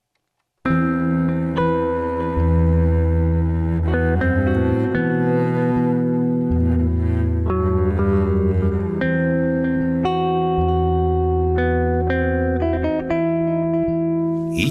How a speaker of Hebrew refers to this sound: כמו בקאבר הבא שרק תקשיבו לקול של הזמר